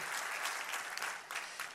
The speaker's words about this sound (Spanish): Dale un aplauso, por favor.